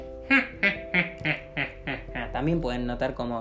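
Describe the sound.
A voice imitates a witch's cackle: a quick run of bright, nasal, twangy laugh bursts, fairly loud, flowing into a short stretch of speech.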